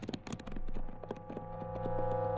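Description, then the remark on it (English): Horse hooves clip-clop in a quick, uneven series of sharp knocks over a steady low droning background, from a horse at the edge of a ridge. “Listen. Yeah, it's a horse.”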